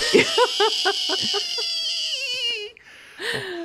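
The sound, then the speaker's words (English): A voice mimics a squeaky frog toy: a quick run of high, pinched squeaks that stretches into a long, wavering whine sliding downward, then one more short squeak after a brief pause. “like the squeaking oh. frog.”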